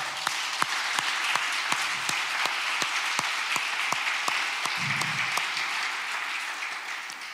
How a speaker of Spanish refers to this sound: ¿Por qué le das un fuerte aplauso a todos los papás?